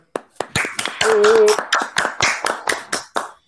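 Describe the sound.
A short round of hand clapping: a steady run of about a dozen sharp, loud claps, with a brief high voiced whoop rising over them midway.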